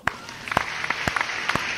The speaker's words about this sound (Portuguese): Só merece palmas, só merece palmas.